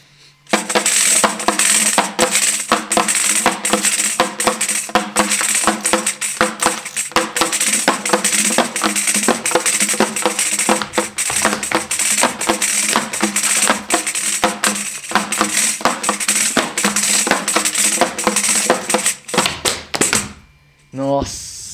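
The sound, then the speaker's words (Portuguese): Rhythmic trupé foot stomping pounds out a steady, driving beat over lively music with singing, dense and loud throughout before cutting off near the end. “Cara, vocês, vocês, você também que está ouvindo, com certeza é muito interessante que vocês estão escutando só o famoso trupé, né? É, exatamente. Tá e aí agora a gente junta a música e a dança.”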